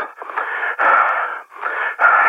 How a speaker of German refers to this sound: Das Walkie-Talkie sprang an.